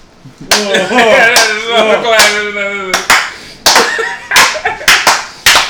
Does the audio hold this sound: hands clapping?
yes